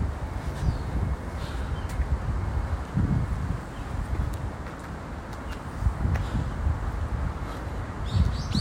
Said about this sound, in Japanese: 氏神様んとこ到着まあ車の音も聞こえちゃうんだけどねここはねしょうがないでも鳥の声は聞こえるんじゃない